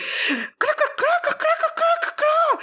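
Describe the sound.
A person mimics a crow, letting out a quick string of about six harsh, nasal caws, following a short breathy exhale.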